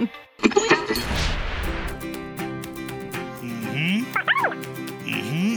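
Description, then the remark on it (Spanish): A chihuahua yaps in quick, high-pitched bursts, mixed with whiny yips and squeals, loud against a busy background hum. “Al contrario, es amargo como el carácter del perrito chihuahua de mis vecinos.”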